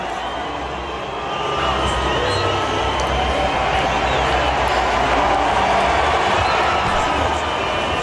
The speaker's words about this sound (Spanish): que se escuche la abucheo. Ahí tenemos el video, si no me equivoco, a ver si le podemos. A ver, escuchemos pues, hijo. Escucha que Ahí está.